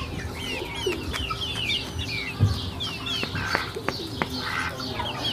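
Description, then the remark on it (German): A flock of very young hens clucks and chirps continuously, a busy overlapping chatter of short, bright calls, with occasional sharper notes cutting through and no one speaking. “Das sind sehr junge Hennen. Sehr, sehr jung.”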